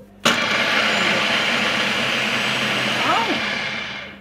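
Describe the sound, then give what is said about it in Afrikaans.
An electric chopper finely chopping small amounts of chilli peppers, such as chocolate and peach scorpion varieties with their tips cut off, starts abruptly and whirs steadily for about four seconds, its motor pitch wavering slightly near the end before winding down. “dis net 'n paar sekondes dan dan sy klaar opgekerf want ek vat klein hoeveelhede sodat hy behoorlik opgekerf kan word.”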